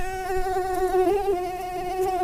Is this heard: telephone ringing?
no